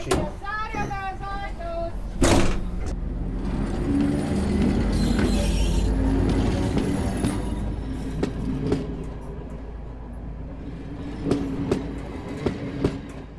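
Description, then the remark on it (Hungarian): The door of a vintage bus with no central power supply is pulled shut by hand with a single solid thud, followed by a steady low engine rumble and rattling clatter as the vehicle moves. “Például ugye a sergio megvan az a karakter, hogy központi energiaellátást nem ad, tehát ugye az ajtót azt kézzel kell zárni.”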